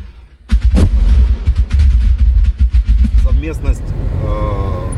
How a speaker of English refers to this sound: Here he is as shells rain around in the initial advance.